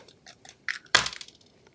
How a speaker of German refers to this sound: Gut, dann äh, würfel ich jetzt